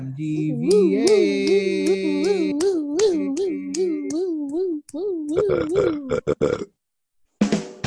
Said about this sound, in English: Wow. Yeah. Why did he burp?